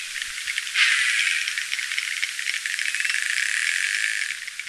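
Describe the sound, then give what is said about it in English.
A male narwhal with a small tusk clicks underwater, a dense rapid rattling train that holds steady and fairly loud throughout, with a brighter swell near the start that could be a cry. No one speaks. “what I'm hearing there are clicks and then like a cry.”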